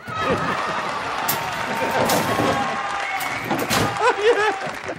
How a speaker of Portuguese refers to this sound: Então eu tô muito feliz porque a gente tá voltando e eu vou até pedir pro meu editor, coloca aí editor uma salva de palmas para a volta do Fincast.